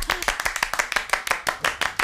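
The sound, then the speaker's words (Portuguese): A brisk round of hand claps in welcome, sharp, in a quick, fairly steady rhythm of about a dozen claps over two seconds, with no talking over it. “Seja recebida com palmas e alegria.”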